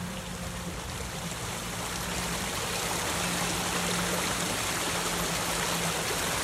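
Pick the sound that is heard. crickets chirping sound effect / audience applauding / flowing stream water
flowing stream water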